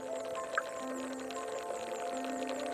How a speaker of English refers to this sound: That's the sound of the tiny bubbles hitting the hydrophonic microphone. The drip like sound is the exact inverse. That's the bubble of CO2 escaping the gas tube and heading to the diffuser.